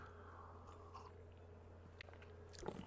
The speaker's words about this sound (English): Listen to what the apostle Paul says in just this emotionally soaring passage out of 2 Corinthians 4, right after I take this sip of coffee.